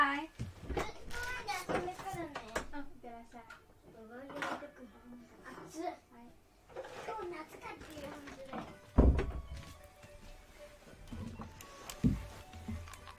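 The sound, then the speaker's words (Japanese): A child who has just come home speaks, chattering in short bursts with an adult's replies mixed in, telling the parent about changing which park they will go to play at, punctuated by a couple of sharp thumps like a drawer or door closing. “えーとですね、遊んでくる公園の場所を変えるという報告をね、今受けました。”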